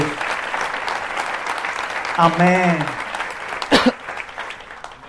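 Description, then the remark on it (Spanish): An audience at a Spanish-language church service claps steadily to rejoice in Christ Jesus, a dense, continuous wash of applause, with a voice calling out briefly over it and a sharp burst of noise near the end. “Dele ese aplauso, gócese en Cristo Jesús.”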